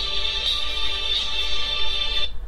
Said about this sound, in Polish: I teraz sobie spokojnie. Przeglądam sobie dzwonki